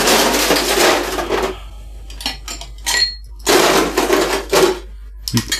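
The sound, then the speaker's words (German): Loud rustling and scraping as a large ice cube is taken out, then a few sharp clinks of the large ice cube dropping against glass, followed by more rustling and a final knock. “Machst du diese schönen großen Eiswürfel selbst oder ja. kaufst du die?”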